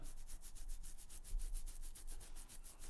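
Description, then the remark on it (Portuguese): Fingers scratch through a beard under the chin to relieve an itch: a rapid, steady run of short raspy strokes, roughly six per second, with no talking. “Estou-me a coçar no sítio.”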